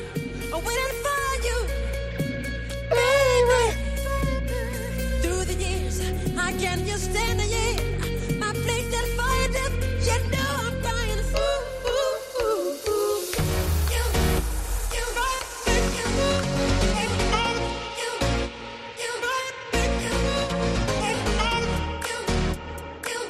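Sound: 1980s pop song playing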